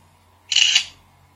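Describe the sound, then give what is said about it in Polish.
A single synthetic camera shutter click from a phone text-scanning app photographing two pages of a book, crisp and bright, lasting about a third of a second over a quiet low hum, with no talking. “I już włączamy migawkę tekst skauta. Wykonywanie zdjęcia.”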